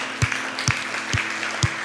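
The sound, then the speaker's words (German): Four sharp, evenly spaced claps from an audience sound in a steady rhythm, like hands clapping together in time, over a constant low background hiss. There is no talking. “Kann man das mal einen Applaus geben hier?”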